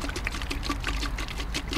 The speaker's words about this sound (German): Ja, ich habe jetzt die sterile Flasche, die schraube ich erstmal auf. Dann lasse ich da ein bisschen Wasser reinfließen, spüle die einmal mit dem Flusswasser aus.